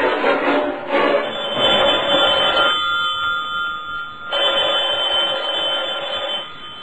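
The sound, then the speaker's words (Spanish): A telephone rings loudly in long bursts with a brief pause between them as a call is placed to a guesthouse, a steady high-pitched ring over a bright, buzzing layer. No one speaks. “Voy a hablar por teléfono.”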